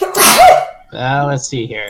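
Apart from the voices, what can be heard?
sneeze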